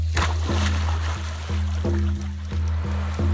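A quick splash as a man goes overboard into the water near the start, then rushing, sloshing water over the steady low drone of a boat engine.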